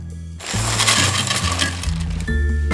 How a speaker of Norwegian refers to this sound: 340 gram boksringer på ei kjøkkenvekt i Fredrikstad.